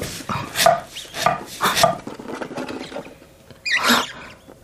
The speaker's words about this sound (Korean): 바스락거리는 소리와 함께 끽, 찍, 삑 소리가 작고 불규칙하게 들려왔다. 쥐가 틀림없었다. 쥐였어. 힘 좋은 쥐는 하수구를 타고 꼭대기층까지 올라간대.